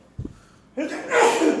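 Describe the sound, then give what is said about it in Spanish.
A single loud sneeze, with a brief intake of breath before a sharp, hissing burst that trails off after about a second. “Salud.”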